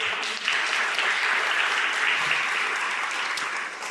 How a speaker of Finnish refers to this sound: Annetaan pikku aplodit.